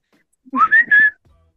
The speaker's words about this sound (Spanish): El chiflido. No. Porque sería un chiflido acá.